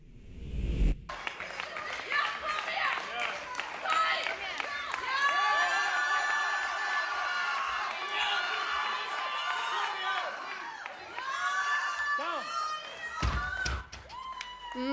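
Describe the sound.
A crowd at the Swedish Championships in classic powerlifting cheers and shouts encouragement at a woman's personal-best 200 kg deadlift, many voices overlapping loudly and steadily for the whole stretch, after a heavy thud near the start.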